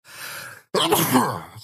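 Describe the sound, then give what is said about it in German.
A single sneeze, fairly loud: a breathy, rising intake followed by a brief pause, then a sharp, explosive burst that trails off with a voiced, noisy tail. “Gesundheit.”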